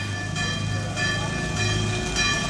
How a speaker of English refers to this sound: Can you hear that? That's church bells.